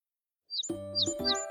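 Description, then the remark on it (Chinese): A lark gives a few short, high-pitched chirps in quick succession in the early morning, sounding over a steady, ringing, chime-like tone that starts just after the first chirp and continues to the end. “就在这时，一只早起的百灵鸟对他打招呼”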